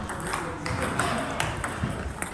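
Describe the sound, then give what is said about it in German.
Dense, overlapping clicks of ping-pong balls striking tables and paddles on 16 tables at once, a busy irregular patter echoing through a sports hall in Dietenhofen, Ansbach district, Germany, during an inclusive table tennis tournament with 50 participants, faint voices in the background. “So klingt es, wenn an 16 Platten gleichzeitig die Tischtennisbälle fliegen.”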